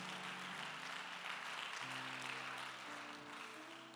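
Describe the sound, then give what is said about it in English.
A church audience claps steadily in praise of the Lord as they are seated in the morning, a dense, continuous wash of hands, with sustained organ-like chords shifting underneath throughout; no one speaks. “Give the Lord a hand clap of praise as you're seated this morning.”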